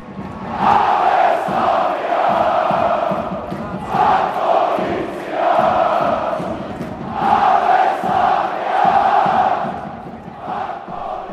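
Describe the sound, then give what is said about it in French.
Slavia Prague supporters chant "Ave Slavia" loudly at length at the Eden stadium in Prague on a Thursday night, after their team won by two goals against the last Europa League finalist, many voices in unison rising and falling in rhythmic phrases that repeat every few seconds, with no single voice standing out. “Ave Slavia ont longuement chanté fort à propos les supporters du Slavia jeudi soir, après que leurs favoris ont donc créé la surprise en s'imposant avec deux buts d'écart contre le finaliste de la dernière édition de la Ligue Europa.”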